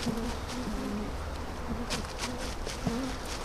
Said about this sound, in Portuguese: As abelhas, mal nós chegámos aqui de carro, sentiram a trepidação e vieram ver quem é que estava aqui e eh, logo a, a primeira reação delas é logo a defesa delas, neste caso através de picadas.